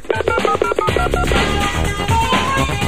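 A rapid run of touch-tone beeps as a U.S. Army recruiting phone number is dialed, each short tone clearly separated, loud, mixed with some background music.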